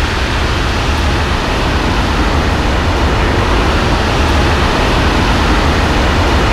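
Ambience by a railway track at night during a graffiti session: a steady, unbroken wash of low rumble and airy hiss at a constant, fairly loud level, with no distinct events and no voices.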